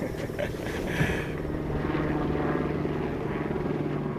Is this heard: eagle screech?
no